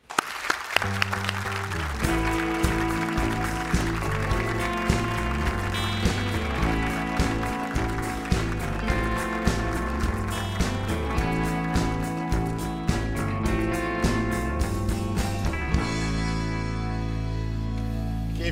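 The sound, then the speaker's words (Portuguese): An audience applauds Kim Kataguiri, coordinator of the Movimento Brasil Livre (MBL), clapping steadily for about eighteen seconds, the sustained applause mixed with loud, rhythmic music carrying a pulsing bass line underneath. “Aplaudam Kim Kataguiri.”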